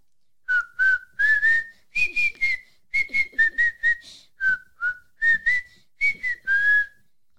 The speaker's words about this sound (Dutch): Zou je nu hetzelfde stukje nog een keer willen fluiten? Oké.